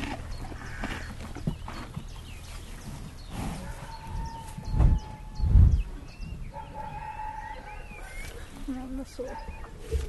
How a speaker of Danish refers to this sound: Der er nogle heste. Der er nemlig nogle heste der. Det er ikke så langt væk. Nå, nej. Nej, det er jo relativt. Det er islandske heste.